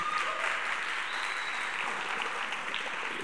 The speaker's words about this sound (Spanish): Un aplauso a Dios.